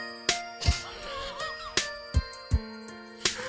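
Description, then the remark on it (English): A phone ringtone plays a bright electronic melody with sustained tones punctuated by sharp, regular percussive hits, fairly loud, with no talking over it; a phone going off in a quiet library as a dad calls. “Oh, his dad called That's his phone. That's oh, ringtone.”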